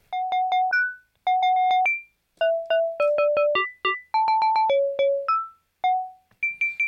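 Dry, mallet-like through-zero FM synth tones from a filtered oscillator patch play a quick, wandering melody of short struck notes in small bursts, with notes and FM ratio randomized and an envelope controlling FM amount and filter, each with a bright, slightly metallic ring and no reverb tail.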